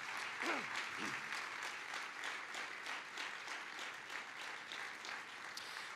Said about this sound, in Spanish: Amén y amén, Señor. Fuertes de aplauso de alabanza al Señor.